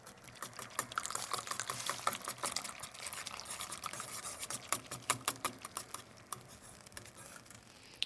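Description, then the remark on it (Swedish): Busy clicking and scraping of a utensil stirring a pot of soup as a potato starch mixture is poured in, with a soft liquid pour and bubbling underneath, steady and continuous with no talking. “Så häller man i under omrörning.”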